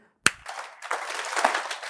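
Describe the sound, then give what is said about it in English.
One sharp, hollow clap rings out, then after a short pause an audience joins in with dense, overlapping clapping, one hand cupped with fingers pressed together and the other loose, smacked into the pocket. The clapping keeps going steadily to the end, with no voices. “I want you to cup this hand a little bit, and then I want you to press these fingers together and leave this hand kind of loose like a whip.”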